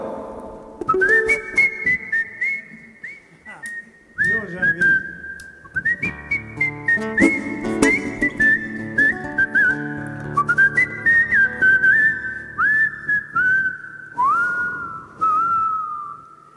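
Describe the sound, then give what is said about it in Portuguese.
A person at an event whistles a flowing melody, with sustained notes and sliding pitch bends in several phrases separated by short pauses, over a fuller, busy background sound. “Eu, eu só vou dizer uma coisa que é realmente que assobio, né?”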